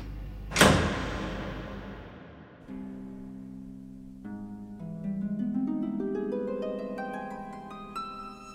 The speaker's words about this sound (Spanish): Vamos, cierro la puerta. Y hasta la próxima.